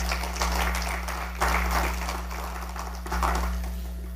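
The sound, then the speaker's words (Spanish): A church crowd claps together as an offering of applause to the Lord, a dense, sustained wash of applause swelling in a few waves over a steady low hum, with no voices standing out. “Bueno, déle esa ofrenda de palmas al Señor entonces.”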